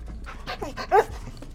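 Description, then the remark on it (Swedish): An anxious, stressed dog pants rapidly in short, breathy bursts, with a brief high whimper rising in the middle, in a house where no one else is home. The sounds are fairly quiet, with no one speaking. “Det verkar inte vara någon hemma Förutom hunden Cinnamon som är något orolig och stressad”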